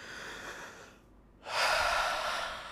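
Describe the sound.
A voice imitates short, breathy gasping inhalations of sudden shortness of breath, as if something were stuck in the throat: an airy rush, a brief pause, then a louder, sharper gasp, fairly loud with no speech.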